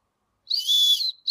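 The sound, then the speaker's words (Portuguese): A loud, shrill blast from a large personal emergency whistle, blown as a demonstration, lasting about half a second, high-pitched and steady, followed by the start of a second blow; no voices. “Mostra o apito pra gente.”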